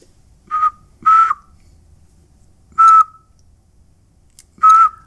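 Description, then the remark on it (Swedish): A person whistles an imitation of a bird call to test a bird-identifying app, which shows 'Hearing a bird' but cannot match it: four short, steady whistled notes, loud, separated by uneven pauses, with no talking. “Hearing a bird står det där.”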